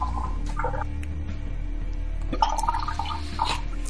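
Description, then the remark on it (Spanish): Liquid sloshes and gurgles inside a baby bottle as it is being prepared, with small clicks and splashes over a steady low hum as it is shaken and handled. No one speaks. “Bueno, este es el sonido de un biberón en directo.”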